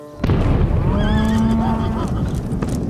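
A sudden loud explosion bursts in near the start on a ranch in West Texas and rolls on as a heavy, sustained rumble, with a high wavering whinny from a frightened, rearing horse rising above it midway.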